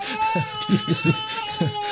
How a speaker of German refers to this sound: Mein Kind kommt gerade weinend zur Tür herein.